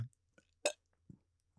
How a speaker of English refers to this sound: She just burped. I'm telling you, this bitch will burp.